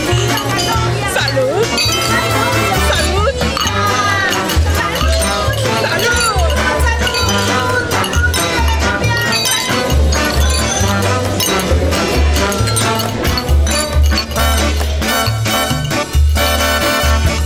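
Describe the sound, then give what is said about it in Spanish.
Glasses of tequila clink together in a toast, bright little chimes scattered over loud, steady music with a strong bass line, while voices carry on through the whole stretch. “Así que brindemos, por favor.”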